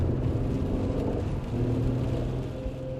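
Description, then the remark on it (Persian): A car drives along steadily, leading other people who follow behind, its engine producing a low continuous rumble with a faint tonal whine shifting slightly in pitch, fairly loud throughout, with no voices. “من با ماشین بیتا جلو افتادم و اونا با والد پشت سرم”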